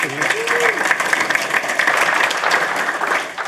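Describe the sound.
An audience claps steadily in a dense wash of applause, welcoming a pastor as the final speaker for a talk on multiplying leaders, with a brief voice fragment at the start before the clapping fills out evenly and then begins to taper at the end.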